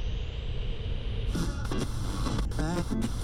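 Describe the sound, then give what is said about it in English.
Steady hiss of radio static fills the first second, then abruptly gives way to loud classic rock music with a singing voice, continuing to the end over a low rumbling background. “The voice transfers back into static, and finally to the classic rock that was playing minutes before.”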